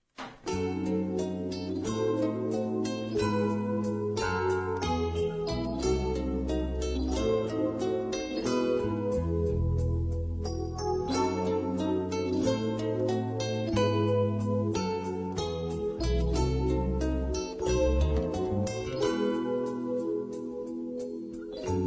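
A 75-year-old man sings a rock song over a full band, the music loud and continuous with steady volume throughout, without pauses or background talk.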